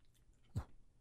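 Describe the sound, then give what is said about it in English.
A little dog chews on something, a single soft, wet crunch standing out against a quiet background with faint low rumbling. “What are you doing? She's chewing something.”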